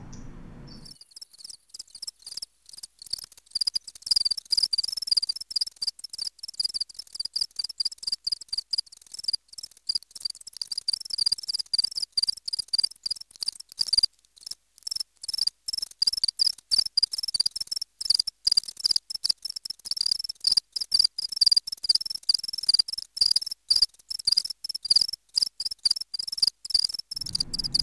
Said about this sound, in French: je vous rappelle le son du grillon domestique que vous connaissez évidemment